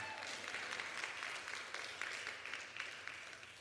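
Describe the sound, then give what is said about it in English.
An audience applauds steadily for a few seconds, a dense wash of many hands clapping at once, fairly even in volume throughout, with no voices standing out. “You know, she came up here tonight and she, she said, if you're going to clap, give her more than a golf clap.”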